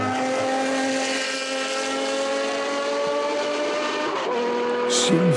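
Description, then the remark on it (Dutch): A Jaguar XJR9 V12 race car engine of about 750 hp, at the 1988 Le Mans 24-hour race, holds a steady, high-pitched howl with dense harmonics, then briefly drops in pitch as it shifts or lifts off before rising again near the end. No one speaks. “24 uur van Le Mans 1988 Jaguar XJR9.”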